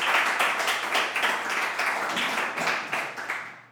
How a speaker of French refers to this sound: On les applaudit encore. On les applaudit encore. Parfait.